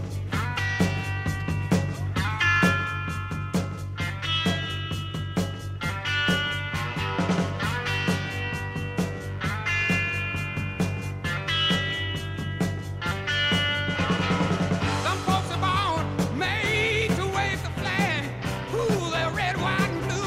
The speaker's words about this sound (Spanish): pues también publicaba la … el, tercer álbum del año, …, en el cual, oye, pues estaba este …